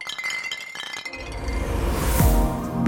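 Glasses clink together several times in a toast, bright, followed by a louder jumble of clattering and rustling as the glasses are knocked together and set down.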